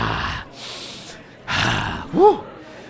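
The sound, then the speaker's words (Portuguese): A voice imitates loud, forceful sniffing: two or three breathy snorts in quick succession, the last one sharper with a brief nasal squeak. “Ah, eu um dia gostava de passar pela sala de espera depois de ser atendido, mas ter pó branco no nariz e estar a fungar.”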